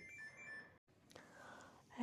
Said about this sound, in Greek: Ε, συγγνώμη, είχα ένα τηλέφωνο.